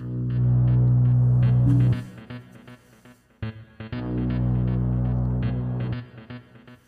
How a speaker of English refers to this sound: But uh, he's the creator of that music um, that we have for the for the show. And in case you have that, uh, if, if you haven't heard it yet, this is what it sounds like.